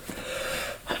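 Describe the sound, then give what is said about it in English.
A single sneeze, a breathy rush of noise that swells and fades with a short gasping burst at the end, heard alone with no talking. “Bless you.”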